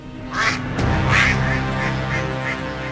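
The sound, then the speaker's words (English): A harsh, raspy bird caw, halfway between a call and a screech, repeats about five times in a steady rhythm, fairly loud, with no voices. “The bird made a strange cawing noise, somewhere between a call and a screech.”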